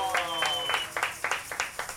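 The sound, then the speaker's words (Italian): A small group claps in a steady, even rhythm, each clap crisp, in thanks to everyone present and all who made the event possible, while a sustained voice or tone fades out during the first half second. “Applauso!”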